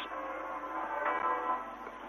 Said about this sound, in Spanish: Sí, estáis escuchando las campanas y son las campanas de Fátima, de la Basílica.